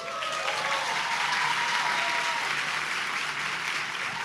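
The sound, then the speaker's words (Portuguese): An audience bursts into steady applause during a preacher's sermon, dense overlapping claps sustained at an even loudness for several seconds with no voices standing out. “Se sente vontade de aplaudir, você aplaude também, assim, entendeu?”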